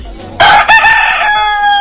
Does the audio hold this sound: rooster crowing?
yes